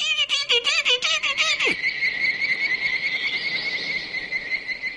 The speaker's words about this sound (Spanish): y al final escucha aquel estupendo efecto de sonido producido por las hormigas. Se oye a distancia esa especie de silbido, ese constante.